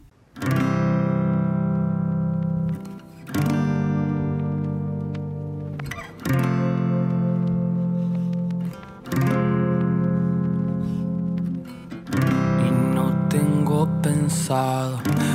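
A pop song's instrumental intro plays loudly, with sustained, buzzy synth-like chords changing every few seconds in a steady pattern, building fuller near the end, no singing yet.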